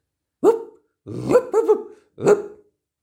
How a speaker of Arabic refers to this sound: هربت البسينة وارتاحت البزرة للحظات قبل ما يطل صاحب الصوت كلب كبير أبيض